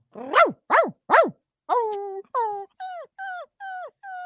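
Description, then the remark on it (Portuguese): A person imitates a dog, giving three quick barks followed by a string of drawn-out, whining howl-like yelps, loud and clear with no other talking. “Ô, velho, dá um latido aí, dá um, faz ah, um uivo.”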